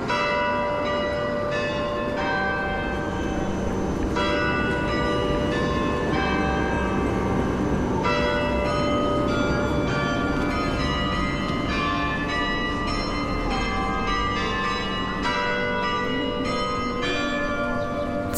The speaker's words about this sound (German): Das Glockenspiel beginnt. Es wird dreimal täglich mechanisch geläutet.